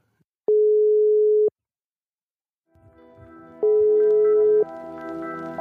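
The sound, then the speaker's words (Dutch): A telephone ringback tone: two steady, single-pitched beeps about a second long with a pause between them, the second heard over a busy background of music-like sound. “Laten we hem even bellen.”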